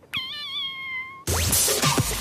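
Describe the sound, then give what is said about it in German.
A person from Frohnhausen gives one long, steady, fairly loud meow in imitation of a cat, lasting about a second before it cuts off abruptly into loud, dense music. “Also mein Talent ist es, Katzengeräusche nachzumachen.”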